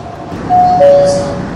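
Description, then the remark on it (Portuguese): Steady rumbling ambience inside a moving metro car, with a clear two-tone descending chime sounding midway through, like an announcement signal, over the continuous low noise. “Paramos devido a uma falha neste trem.”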